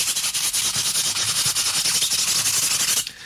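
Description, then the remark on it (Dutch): A piece of sandpaper scrubs vigorously over a vinyl single taken off the record player, in rapid back-and-forth strokes to simulate record wear, a loud, bright abrasive rasp that continues steadily for a few seconds before stopping abruptly. “Maar om dat te simuleren heb ik een stukje schuurpapier meegenomen.”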